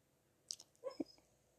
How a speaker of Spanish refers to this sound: Ese es mi perro que tiene pesadillas. Que los perros también tienen pesadillas. No sé qué podrán soñar.